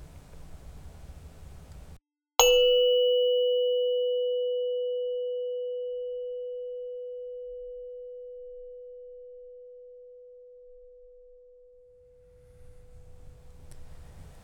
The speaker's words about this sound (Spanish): Al sonar la campana empezaremos la meditación.